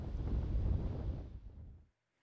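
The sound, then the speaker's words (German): Strong storm wind gusts in northern Germany roar in a deep, blustery rumble, surging for a couple of seconds before cutting off abruptly into silence. “Und auch dem Flugverkehr machten die starken Windböen zu schaffen.”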